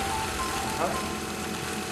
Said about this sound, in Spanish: cuando prende eh, la batea de ultrasonido donde se limpian los inyectores, que tiene también un sonido.